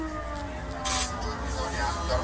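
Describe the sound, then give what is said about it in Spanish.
Air raid sirens sounding over cities in Ukraine hours after the Russian invasion began, alerting residents: a steady, droning siren wails continuously, its tone holding over a bed of broad outdoor noise, with a brief burst of hissing noise partway through. “Horas después, las sirenas sonaban sobre las ciudades, alertando a todos los residentes.”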